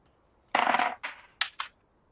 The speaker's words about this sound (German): Äh, würfel bitte auf Stealth.